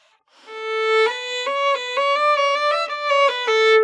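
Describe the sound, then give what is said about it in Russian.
A solo violin plays a short melodic phrase with ordinary bowing, full and bright in tone, moving through several sustained notes with clear bow changes, fairly loud. “Если обычное звучание это что-то такое”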